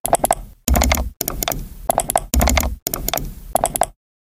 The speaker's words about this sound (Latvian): Labi, paklausīsimies, kā skan datorpele, un tad jūs sapratīsiet, kāpēc datorpeli sauc par pēli.